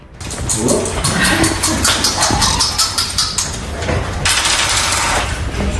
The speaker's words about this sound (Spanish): La jueza ha decidido que en lugar de tirar una moneda para resolver el empate, se lanzaran los dados. Tira primero el socialista Raúl Pardos tira después esos dados el candidato popular.